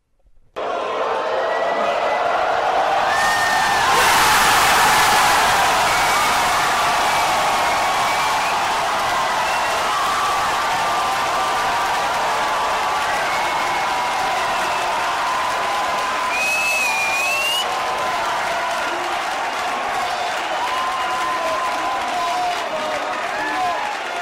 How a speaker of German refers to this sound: Nun ging es also los mit dem Spiel Deutschland gegen Portugal, und nach etwas mehr als zehn Minuten ging auch schon der erste Jubelsturm los